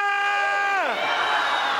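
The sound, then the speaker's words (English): An audience at a church service shouts hallelujah and cheers: one loud sustained shouted voice slides downward in pitch, then dissolves into a dense, steady roar of many voices cheering together. “Shout hallelujah!”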